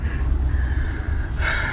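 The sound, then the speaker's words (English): Steady low rumble of a truck cabin while driving home on the road, a constant engine and road drone with a faint higher whine riding on top, continuous with no talking. “I'm on my way home and I thought I'd do a truck podcast or a car podcast or whatever the hell you want to call it.”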